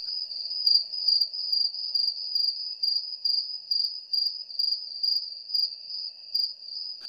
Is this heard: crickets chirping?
yes